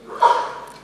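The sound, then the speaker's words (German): A single quick sneeze bursts out, a short sharp exhalation that fades within a moment, with no talking over it. “Gesundheit.”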